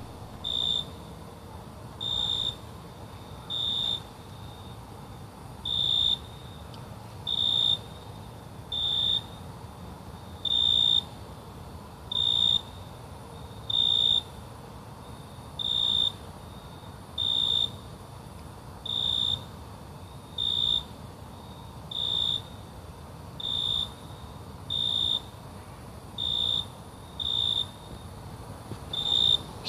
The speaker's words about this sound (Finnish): kesäillalla sirkkojen sointia